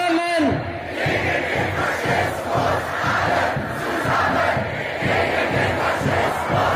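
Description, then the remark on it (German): A large crowd chants loudly in unison, a rhythmic, repeated call with dense overlapping voices, sustained and energetic throughout, at a street demonstration in Germany against right-wing extremism. “Zehntausende sind bundesweit auf die Straßen gegangen, um gegen Rechtsextremismus zu protestieren und für unsere Demokratie einzustehen.”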